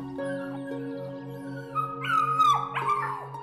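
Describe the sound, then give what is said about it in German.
Seven silver-grey puppies, with their mother present, whimper and yelp in a few high, whiny calls that slide downward as they wake and jump up against a wooden gate, growing louder toward the end over a steady low hum in the background. “Aber jetzt kommt allmählich Leben in die kleinen Babyhunde.”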